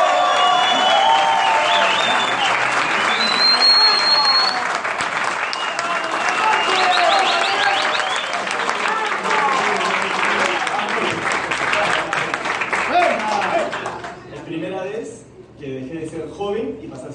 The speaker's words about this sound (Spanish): Así que recibamos con un fuerte, fuerte, fuertísimo aplauso al diamante de la compañía